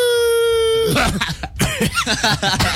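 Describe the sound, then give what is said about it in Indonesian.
A person holds a steady, howl-like vocal note, then breaks into a burst of rough, repeated coughs, fairly loud, imitating a wolf coughing. “serigala batuk. Batuk kayak tadi.”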